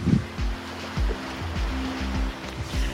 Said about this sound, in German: So, jetzt kannst du noch ein bisschen im Meerrauschen zuhören.